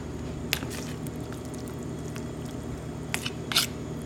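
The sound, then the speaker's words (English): Vegetables being stirred in a vinegar bath of apple cider vinegar and kosher salt: a few soft, wet squishing clicks and scrapes, sparse and uneven, over a steady low background hum. No one speaks. “We're going to stir it all up.”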